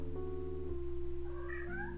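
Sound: cat meowing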